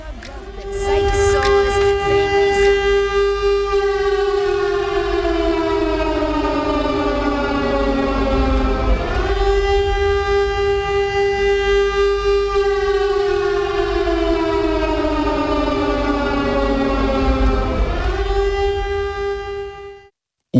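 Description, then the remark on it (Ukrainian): A loud air raid all-clear siren wails steadily, its pitch sweeping in long repeating cycles roughly every nine seconds, with no talking over it. “У нас відбій повітряної тривоги, між іншим.”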